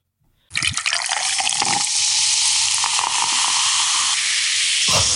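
An effervescent magnesium tablet fizzes in water for a drink, a steady, bright hiss that starts abruptly and continues without pause, with faint crackles and a soft knock near the end.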